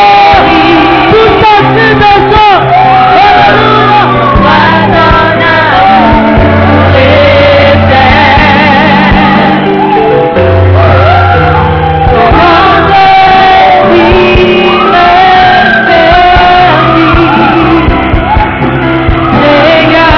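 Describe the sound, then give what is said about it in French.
A crowd giving cries of joy and acclamation, shouting and cheering loudly and without pause, many voices overlapping in sustained, pitched yells and whoops that keep a dense, steady roar throughout. “tu es dans la joie, tu es prêt à recevoir une bonne de la part du Seigneur, Tu ce cri la joie et de l'acclamation, tu peux sortir la voix du Dieu, ton”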